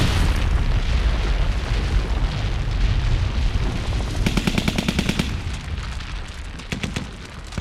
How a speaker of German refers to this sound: Und dann hat es ein, eine Detonation gegeben, also ein dumpfer Knall.